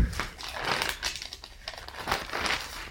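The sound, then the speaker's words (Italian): Crisp paper rustling and crinkling as newspaper pages are turned to pages 4 and 5, a few loud swishes and crackles over about three seconds, with no voices. “E stampa, pagina 4 e 5”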